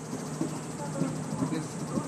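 Cicadas buzz steadily outdoors in a dense, continuous chorus, a shrill drone that holds at an even level throughout with no pauses, with faint low murmuring underneath.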